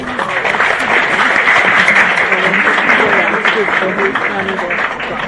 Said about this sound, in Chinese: 那么两位教授不辞辛苦的这个来到我们现场，这一阵掌声欢迎两位。